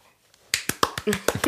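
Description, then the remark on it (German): After a moment of near silence, a short burst of applause: roughly eight sharp claps in a quick, fairly steady rhythm, like a single person or small group clapping briefly. “So, der Applaus. Hier kommt noch mehr Applaus.”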